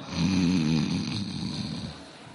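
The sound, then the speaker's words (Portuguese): A person imitates a loud snore with their voice, depicting the apostle John sleeping with his head on Jesus' chest: a single drawn-out, rattling breath that wavers in pitch for a couple of seconds before trailing off. “João era aquele irmão que deitava a cabeça no, no peito assim, roncava igual.”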